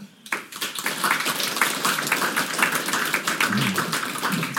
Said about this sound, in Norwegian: Og nå har vi fått eh, storfint besøk fra eh, Over fjellet. Kjartan Fløgstad og eh, Aslak Nore. Gi dem en varm applaus.